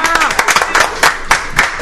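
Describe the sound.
A group claps in a brief burst of scattered, uneven hand claps, steady throughout, with a voice talking over the applause.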